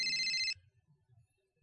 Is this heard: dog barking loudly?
no